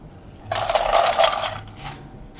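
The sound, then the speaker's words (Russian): Ice is scooped with a bar scoop into a cocktail glass: a loud burst of bright, crunchy clinking and rattling lasting about a second, followed by a brief fainter rattle as the cubes settle. No one speaks. “Немного небрежно, совком прикрывая лед.”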